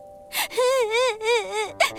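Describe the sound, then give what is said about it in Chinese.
Loud, high-pitched crying from Mimi, a story character: a long wavering wail that rises and falls in pitch, framed by sharp sobbing gasps at the start and end. “米米止住了哭声。”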